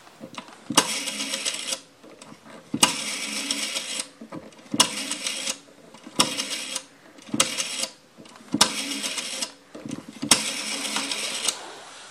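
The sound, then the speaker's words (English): A rotary phone is dialed, with about seven bursts of mechanical whirring and ratcheting as the dial winds and spins back, each lasting around a second and separated by short pauses. No one speaks. “You got a rotary phone. I'm not sure if this thing's going to work, but let's give it a shot.”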